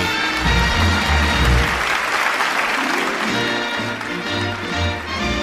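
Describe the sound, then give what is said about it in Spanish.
An audience applauds at a 2020 awards gala: loud, dense clapping that stays steady for several seconds, with low, humming tones pulsing underneath and no voices. “Esta noche queremos aplaudir a las mayores celebridades de nuestro país.”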